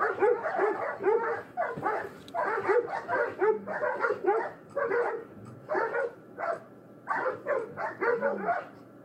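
A dog barks and yips in a quick, steady series of short, loud bursts, with a few whining, whimper-like notes slipped between the barks.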